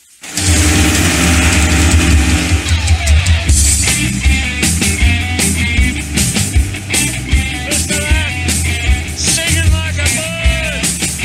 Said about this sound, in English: If there's one thing Dad loved more than serenity, it was an outboard motor on full throttle.